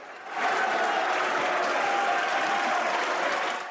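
Sustained applause from opposition deputies in a parliament chamber as the deputies vote to suspend the debate: a dense steady clatter of many hands clapping at once, swelling quickly and holding loud throughout before easing slightly at the end.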